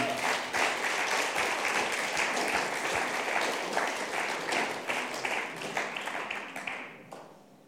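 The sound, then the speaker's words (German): A church crowd applauds itself for collecting ten tons of donations, bursting into sustained, dense applause, many hands clapping at once in a steady roar that thins out and fades over the final second. “Ihr dürft euch mal selber einen fetten Applaus geben.”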